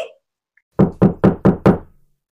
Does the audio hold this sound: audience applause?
no